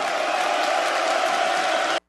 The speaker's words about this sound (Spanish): Aplausos de pie, como no. Aplausos de pie para mis caballeros águilas.